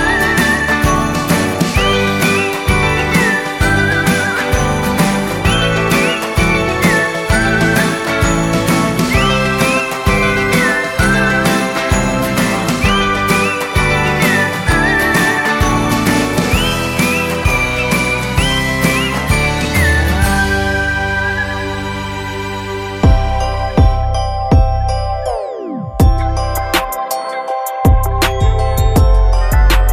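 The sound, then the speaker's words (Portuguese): Upbeat Christmas music with bright jingling bells over a steady, pulsing beat, played loud with no talking; near the end the music thins out into sparser, lower sustained tones. “mete o som natalino porque o episódio tá começando agora!”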